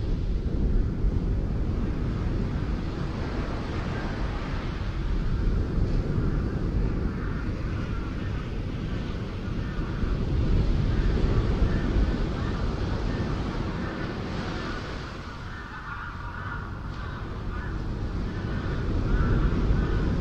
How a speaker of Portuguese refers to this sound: O vento é suave e no mar reina a mais tranquila calmaria. Com os pés na areia, observamos a maré subir na praia da Barra de Caravelas.